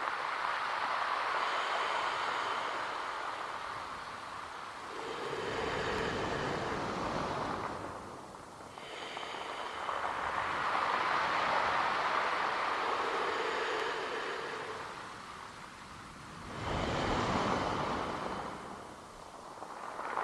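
Steady rushing surf with waves swelling and breaking roughly every six seconds, each surge a broad hiss that builds and recedes. No voices, just the continuous wash of the sea.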